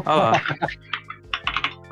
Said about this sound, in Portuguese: Olha o teclado mecânico aí, ó, você viu? Pois é. Olha lá